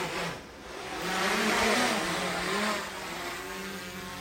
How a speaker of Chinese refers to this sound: 他在弄那个那个无人机，那个什么？对，无人机，他要准备发，他要准备升空，那个声音，这声音好大声，声音好大